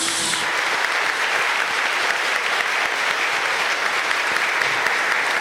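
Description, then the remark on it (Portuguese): An audience in a church applauds the Word of God after the Gospel reading, a dense, steady wash of many hands clapping that stays loud and even for about five seconds, with no voices heard over it. “Vamos aplaudir a palavra de Deus, meus queridos.”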